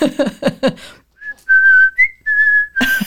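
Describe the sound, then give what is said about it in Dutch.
A short melody whistled by mouth in place of a flute part when a song is performed live, a few clear sustained pitched notes stepping up and down like a flute line, preceded by brief speech-like sounds and cut off by a burst of noise. “nee, als ik het live doe, dan fluit ik het met mijn mond.”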